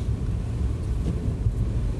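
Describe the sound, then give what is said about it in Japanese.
A steady, heavy low rumble of strong wind buffeting continuously, with gusty fluctuations and a broad hiss on top, fairly loud throughout with no voices. “ああ風がすごい”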